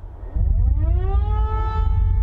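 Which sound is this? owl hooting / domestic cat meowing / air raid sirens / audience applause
air raid sirens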